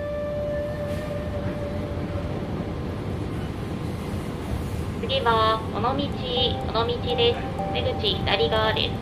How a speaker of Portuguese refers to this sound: São 10 e pouca da manhã e eu estou num trem da linha Sanyo, que é uma linha que sai da cidade de Kobe e percorre mais de 500 quilômetros para o oeste da ilha principal do Japão, chamada de Honshu.